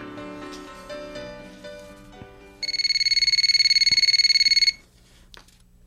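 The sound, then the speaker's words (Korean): A telephone ringing tone of a call to a private academy (hagwon) sounds for about two seconds as a rapid, buzzy, trilling burst at a steady high pitch, following soft music and a few clicks, then it cuts off to near silence. “전 용기를 내서 학원에 전화를 걸어봤습니다.”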